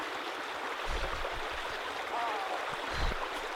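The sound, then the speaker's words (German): Steady, dense rushing water of a waterfall fills the scene, a constant broad hiss with a couple of low rumbling surges, and no clear voices above it. “wir sind oder? den Wasserfall gerade runtergefallen.”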